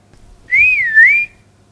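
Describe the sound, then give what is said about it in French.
A single clear, whistle-like tone that glides up, dips down and rises again in pitch over under a second, heard alone and fairly loud against a quiet background. “Le son est varié en fréquence.”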